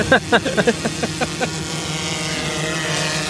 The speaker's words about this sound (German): Die Drohne kommt uns wieder verdammt nah. Ja. also so ja, einen halben Meter neben unseren Köpfen fliegt die gerade.